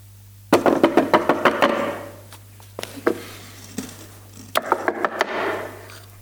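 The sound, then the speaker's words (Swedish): A rapid burst of sharp knocks on a wooden door, then a few scattered raps and another quick volley, fairly loud over a low steady hum. “Jesus knackar på. Han säger se, se, se, jag står vid dörren.”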